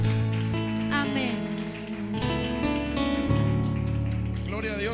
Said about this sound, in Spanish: Que le des un aplauso al Señor. Que le des el mejor de los aplausos al Rey de Reyes y Señor de Señores.